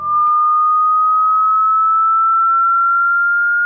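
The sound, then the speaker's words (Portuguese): A loud, steady electronic whistle tone used as a mobile phone ringtone, held continuously for several seconds and creeping very slightly upward in pitch, with nothing else around it. “Vocês lembram daquele barulho de jatinho que tinha? Sim, tipo, nossa. Assovio? Esse ruído aí que você tá ouvindo agora, ó.”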